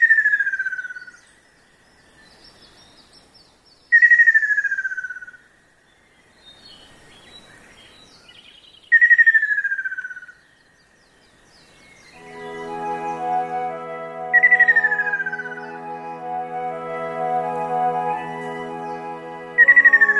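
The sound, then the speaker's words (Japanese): A ruddy kingfisher, a bright red bird, sings a clear, descending trilling whistle, repeated five times at regular intervals, loud, in a forest in Echigo in the rainy season, with a dense buzzing chorus of insects or frogs rising in the background later. “雨降る季節の森に歌う赤小瓶火の鳥とも呼ばれる真っ赤な鳥のしっとりとみずみずしい声が越後の森に響き渡ります”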